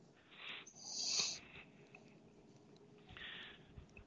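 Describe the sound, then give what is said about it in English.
A dog snorts and wheezes in a few raspy, breathy bursts, including a sharp high-pitched squeaky wheeze, with quieter snuffling between them. “Don't blame the dog on this. Get away from there.”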